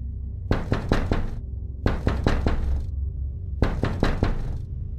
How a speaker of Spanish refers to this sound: De repente tocaron mi ventana que daba a la calle.